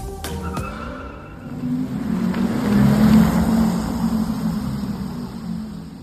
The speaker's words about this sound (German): Ja. Ist halt ein Elektroauto, ne? Genau. Und wir sprechen heute über den großen BMW iX.